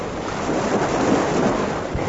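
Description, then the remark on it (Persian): Ocean waves wash and splash in a steady, rushing roar that fills the whole moment, fairly loud, with a hint of wind noise and no voices, as Pinocchio, his father and the cricket fall into the water after a whale expels them. “نهنگ شروع به تقلا کرد و بالاخره با یک صدای بلند عدسه کرد و همه چیزو بیرون داد پینکیو پدر و جیر جیرک بر روی آب افتادن”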